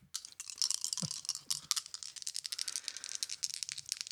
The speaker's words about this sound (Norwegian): Kaste eh, to terninger. Gjerne. Kan jeg låne en terning av deg?